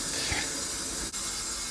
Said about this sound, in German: Was ist es? Was man hier hört, ist eine quasi eine zugfreie Klimaanlage. Das heißt, unsere, unsere Bestände sind hier relativ gut geschützt. Also das heißt, es hat eine absolut ideale äh, Temperatur und auch eine ideale Luftfeuchtigkeit hier